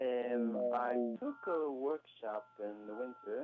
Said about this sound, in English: Well, you're breaking up. I'm sorry, we're not hearing it clear at all.